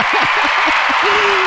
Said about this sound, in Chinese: 哇，来掌声一下。